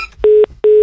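Two short, identical telephone dialing tones sound one after another as a person who hung up is called back, each a steady electronic beep of about a fifth of a second, separated by a brief gap, with no talking.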